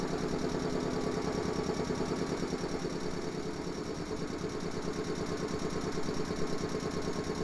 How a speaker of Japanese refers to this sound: 名鉄三河線上衣駅碧南方面2番線の音もういいじゃんこの ズタズタズってね